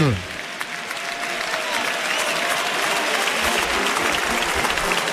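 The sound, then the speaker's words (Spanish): A bullring crowd bursts into sustained, loud applause, a dense steady roar of clapping filling the whole stretch as a strong farewell ovation for El Juli, with a brief tonal sweep at the very start. “Ahí está la ovación del público.”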